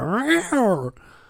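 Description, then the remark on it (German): A human voice mimics a startled cat with two rising, strained yowls in quick succession, loud, then cuts off abruptly into quiet. “Bei den, bei dem Katzengeräusch zucke ich zusammen.”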